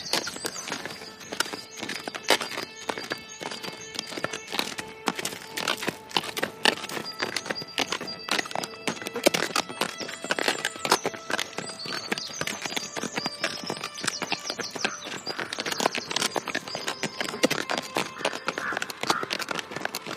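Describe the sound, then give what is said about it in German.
Horse hooves clip-clop steadily and continuously as riders ride toward the Audi works, a busy rhythmic clatter that stays fairly even throughout, with bird calls and bright ambient tones sounding in the background. “Dann reiten wir jetzt mal äh, zu den Audi-Werken äh, und schauen, was der Druide zu sagen hat.”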